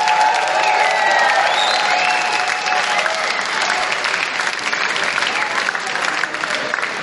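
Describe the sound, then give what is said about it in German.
A crowd at a chess boxing event claps steadily for about seven seconds for the fight judges, a dense, even wash of applause with a few faint cheers mixed in, holding loud throughout. “Ein kleiner Applaus, meine Damen und Herren.”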